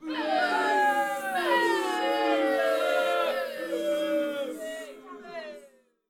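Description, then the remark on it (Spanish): A crowd booing sound effect, played as a boo for palm oil: a crowd boos loudly and steadily for about six seconds, many overlapping voices holding drawn-out, falling jeers before the noise tapers off at the end. “Perfecto, pues ahí va el abucheo para aceite de palma.”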